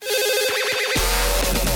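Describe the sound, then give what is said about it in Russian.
A telephone rings for a call about an advertisement, with a rapid, warbling electronic trill that repeats steadily; about halfway through, a louder, fuller sound with deep bass swells in beneath it. “Звонок по объявлению.”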